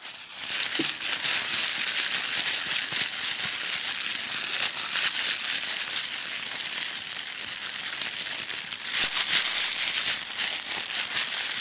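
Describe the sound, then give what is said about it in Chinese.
A foley imitation of fish frying in a pan: a steady, dense sizzle and crackle of hot oil with brief pops, continuing loudly without pause for about twelve seconds, no voices. “我我给大家做一场，就是今天我们这条鱼要下锅。”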